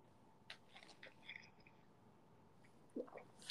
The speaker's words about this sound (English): I'm sorry, I'm, I'm, listening. I'm chewing.